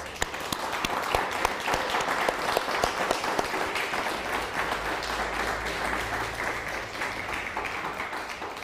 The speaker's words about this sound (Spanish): Sí, un fuerte aplauso a todas las naciones.